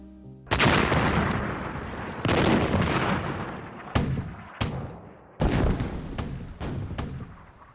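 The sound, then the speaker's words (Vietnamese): Heavy wartime artillery blasts roll through, several loud booms with sharp onsets followed by rumbling decay, coming in an uneven sequence of about six or seven impacts with no voices. “Chiến tranh rồi cũng lan đến ngôi làng Hoa Mơ.”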